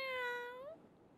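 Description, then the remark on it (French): A single high-pitched kitten meow, drawn out and tonal, rising slightly at the end before cutting off, heard alone with no talking. “Elle a des pattes, une queue, des oreilles et pousse de drôles de petits cris.”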